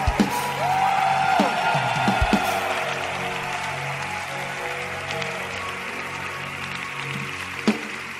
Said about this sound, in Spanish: Vamos a dar ese aplauso al Señor.